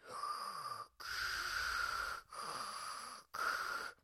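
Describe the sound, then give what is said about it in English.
A voice imitates the heavy, mechanical respirator-helmet breathing of Darth Vader from Star Wars: four loud, raspy, hissing breaths in and out in a slow, steady rhythm, with brief silent pauses between them. “I always loved one of the things about Darth Vader's character is that he is in this helmet that makes his breathing very noisy.”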